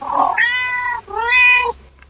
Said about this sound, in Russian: А еще в усадьбе очень привольно чувствуют себя котики, их там много и дают себя гладить. И вот еще одно объяснение названия, смотри, Муранова. Котики мурлычат, да?